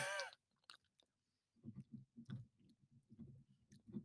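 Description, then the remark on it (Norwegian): Wet chewing and lip smacking in a steady irregular rhythm as someone tastes food, with a few soft clicks and a brief rustle at the start. No one speaks. “Liksom jeg tygger på den, men ikke hva jeg tygger på i det hele tatt.”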